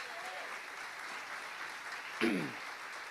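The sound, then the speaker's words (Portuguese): An audience applauds the Lord, clapping steadily and strongly in a dense, continuous wash of applause, with a brief voice calling out over it near the end. “Você pode aplaudir ao Senhor bem forte?”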